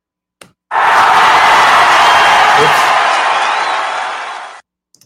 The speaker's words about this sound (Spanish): ¡Listo! Y ahora sí, unos calurosos y cariñosos y afectuosos aplausos.